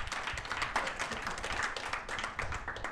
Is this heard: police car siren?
no